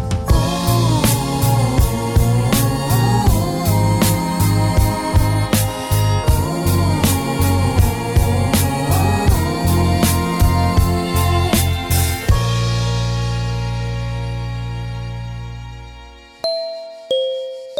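A song with a steady, punchy beat plays loudly, then stops on a held chord that slowly fades out, followed by two short bell-like dings.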